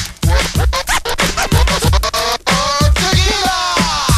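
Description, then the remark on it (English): A DJ performs a transformer scratch on a turntable, the record sound rapidly chopped on and off in quick stuttering bursts. Loud and continuous with no voices. “Then you got Transforming.”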